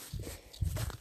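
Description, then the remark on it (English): Two soft, muffled footsteps of a person walking in the woods land a moment apart, crunching faintly on a woodland path, quiet with no voices. “I'm currently walking in the woods with the dog, so any background noise you hear will be the birds and my footsteps and the occasional yelling at the dog.”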